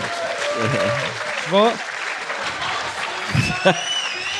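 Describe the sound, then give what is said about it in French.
An audience at a live show applauds steadily, a dense wash of clapping that lasts throughout, while a voice speaks briefly over it now and then. “J'aimerais ça qu'on applaudisse.”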